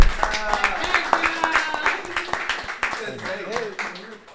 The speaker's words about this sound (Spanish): Y quiero que le den un fuerte aplauso